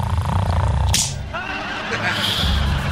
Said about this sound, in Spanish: Déjela de una cachetada primero despacito.